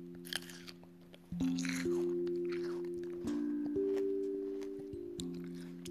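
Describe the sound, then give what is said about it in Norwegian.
A crisp, juicy bite into a seedless Autumn Crisp grape, followed by several wet crunching chews, with a steady low droning tone running underneath. “En drue, når man spiser den, høres sånn ut.”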